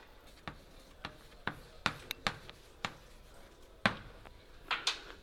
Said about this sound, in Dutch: Sorry, ik ben niet gewoon dat op een bord te schrijven.